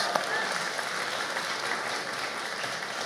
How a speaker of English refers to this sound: I just want to thank all our FSM students. Let's just give them one more round of applause.